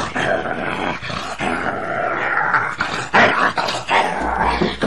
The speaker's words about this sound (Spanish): El perro empezó a ladrar fuertemente frente a la puerta de la casa.